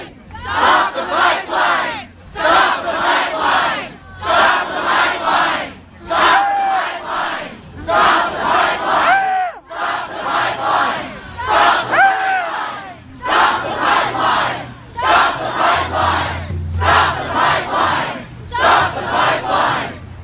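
A large protest crowd in the USA, demonstrating against construction of the Dakota Access oil pipeline, chants in unison, loud, repeating a short rallying phrase in steady rhythmic bursts with brief pauses between each shout, continuing for about twenty seconds.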